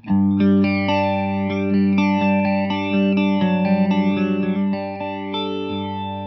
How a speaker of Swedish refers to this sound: Nu Flangers.